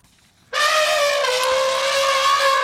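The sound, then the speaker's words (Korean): An elephant lets out a single loud, brassy trumpeting blast that starts abruptly after a brief silence and holds steady for about two seconds, unaccompanied, played as a sound effect. “코끼리 울음소리입니다.”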